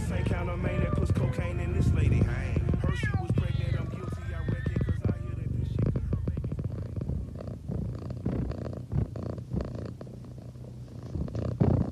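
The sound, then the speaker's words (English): A cat meows several times with rising and falling wavering cries, close and fairly loud over a low continuous purring rumble, with scattered clicks and rustles throughout. “Yeah, I mean, there isn't that much cat sound.”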